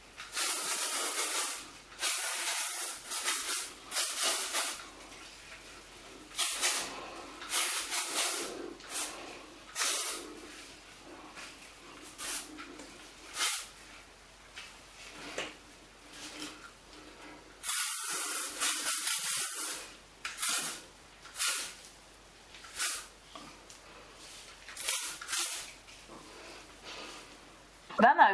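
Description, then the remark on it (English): Repeated bursts of volume hairspray from an aerosol can spritzed at the hair roots with the head upside down, hissing in short and longer spritzes, fairly loud, with brief pauses between each burst. “I throw head over and spritz with more volume hairspray at the roots for extra lift while it's upside down.”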